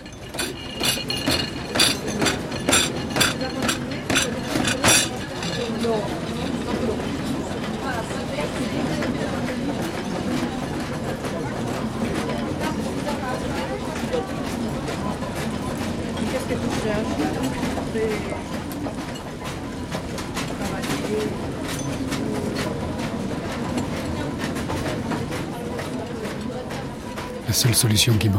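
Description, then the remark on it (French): Cafeteria trays, deliberately arranged to produce an amusing sound, clatter in a quick, regular rhythm for a few seconds, then keep clinking and knocking more loosely over a steady background murmur of voices, fairly loud. “Le plus étrange, c'est que j'avais même organisé les plateaux de la cafétéria de telle manière à ce qu'ils fassent une sonorité qui vous amuse et vous intéresse.”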